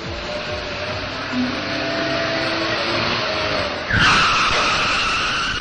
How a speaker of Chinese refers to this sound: 大灰狼把摩托车一停，摘下头盔，朝小熊他们喊了起来